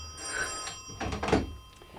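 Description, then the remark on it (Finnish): A telephone rings with a steady, bright bell tone for about a second and a half, over a few dull clunks and handling knocks, then falls silent. No one speaks. “Kalle Kustaa Korkki puhelimessa.”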